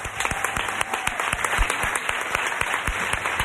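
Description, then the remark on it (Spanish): A crowd in the Teatro Calderón in Valladolid applauds steadily, many hands clapping in a dense, continuous patter that stays fairly loud and even throughout, with no voices standing out. “Un aplauso para ella.”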